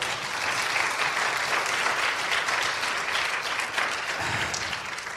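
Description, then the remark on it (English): An audience applauds to give God praise for a miracle, a steady, dense wash of many hands clapping at once, sustained and fairly loud for several seconds with no voices standing out. “can we stop for just a second and give god praise for the miracle that you've, you've heard about”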